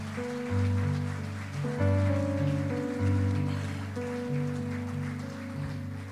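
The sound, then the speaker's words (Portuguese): A crowd claps steadily for several seconds in applause to the King of Glory, a dense patter of applause over sustained keyboard chords that shift every couple of seconds. “Você pode aplaudir ao Rei da Glória, meu irmão?”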